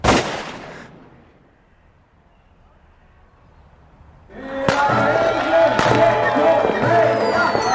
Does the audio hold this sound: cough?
no